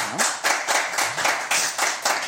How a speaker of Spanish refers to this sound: Así es que aplausos a la secretaria.